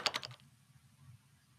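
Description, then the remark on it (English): Four quick, crisp key presses on a door keypad in a rapid burst, then only a low, steady hum for the rest of the moment. “I used to hit the wrong keys for the number, but I put the ones on the paper.”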